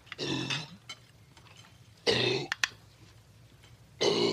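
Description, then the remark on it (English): A dog retches and hacks harshly in three loud bursts, each a rough, guttural heave separated by short pauses, as it coughs up a bone. “Oh, he's just yakking on a bone. he got it up.”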